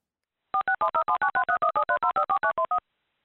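A telephone number being dialed: about sixteen quick, evenly spaced keypad beeps, each a clear two-tone chirp, in a steady run lasting a couple of seconds, clean with silence around it.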